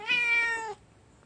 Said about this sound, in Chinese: 听得出来是两只不同的猫在叫吗？它们两个的习惯也很不一样。